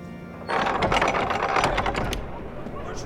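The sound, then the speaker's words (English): A caravan of brightly painted wagons rolls into a town with a loud, busy clatter of rattling wheels and creaking parts that starts abruptly and keeps up steadily, easing slightly toward the end. “It is a caravan. Look at all those brightly painted wagons.”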